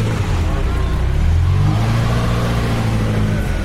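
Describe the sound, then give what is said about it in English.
A Ferrari 328 sports car engine drones loudly and steadily as it drives past, its low growling tone rising slightly in pitch midway before holding even, with a rushing background noise. “Here comes the 328.”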